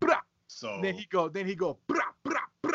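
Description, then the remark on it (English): A man speaks briefly, then voices an imitation of Tommy gun fire: three short, clipped, punchy bursts in quick succession, fairly loud. “That's the sound of the but, bat. Brah, but, brah. but he have a Tommy gun.”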